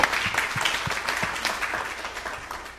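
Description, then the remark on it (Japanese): A church audience breaks into applause for Jesus, a dense wash of many hands clapping steadily for a few seconds, gradually easing off toward the end. “イエス様の拍手したいと思います。”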